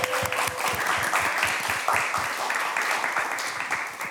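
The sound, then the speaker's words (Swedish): A crowd applauds with dense, steady clapping that stays loud for about four seconds, individual claps overlapping into a continuous patter before easing slightly at the end. “Men stort applåd”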